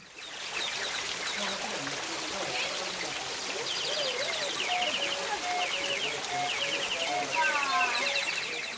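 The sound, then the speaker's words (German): Steady splashing of water at the Owl Fountain (Fontana della Civetta), a continuous hiss, with high chirping and warbling bird-like whistles trilling over it throughout, made by water-driven organ pipes imitating birdsong. “Vom Orgelbrunnen aus geht es über weitere Terrassen und vorbei an einer spritzigen Vielfalt von Brunnenanlagen zur Fontana della Civetta, dem Eulenbrunnen.”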